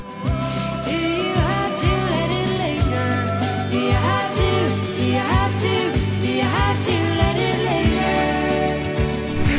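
A pop rock song by an Irish band plays loud, with a melodic sung vocal over steady bass notes, guitars and a regular drum beat, running continuously with no talking over it.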